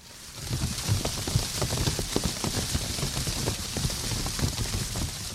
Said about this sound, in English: The butterflies are fluttering their wings.